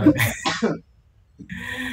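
A close, rough coughing fit of a few harsh bursts in quick succession, followed by a short silence and then a steadier murmur of noise.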